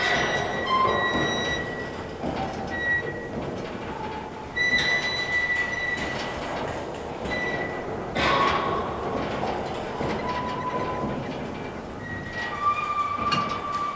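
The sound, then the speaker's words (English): An old defunct windmill in Arizona creaks and groans, with drawn-out high metallic squeals recurring irregularly over a steady rumbling wash of noise. No one speaks. “he had gone to a windmill, like a defunct windmill in Arizona, and so the sound of that thing uh, was just beautiful.”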